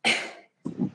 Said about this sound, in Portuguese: Vou espirrar.